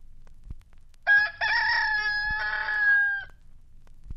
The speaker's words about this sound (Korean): 닭으로 하여금 새벽 시간을 알리게 하고